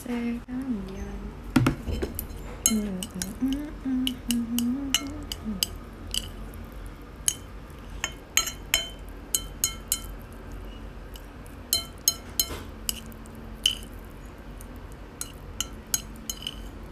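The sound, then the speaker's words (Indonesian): A spoon stirs in a glass, making many sharp, bright clinks in an irregular rhythm for the whole stretch. A low voice murmurs briefly near the start. “aku lagi fokus ngaduk kayak gak boleh ada yang nggak keaduk gitu”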